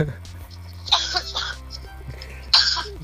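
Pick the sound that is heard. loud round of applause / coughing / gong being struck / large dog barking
coughing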